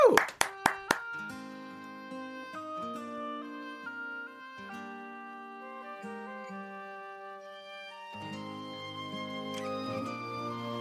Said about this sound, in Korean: 자, 여러분 마음의 박수 저는 뜨거운 박수 보냅니다. 박수요!